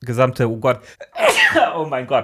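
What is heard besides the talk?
sneeze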